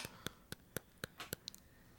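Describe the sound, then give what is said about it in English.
A series of sharp clicks of teeth in a human head snapping together, about four per second at first and then a few softer, irregular ones, with no talking underneath. “That is the sound of teeth in a human head.”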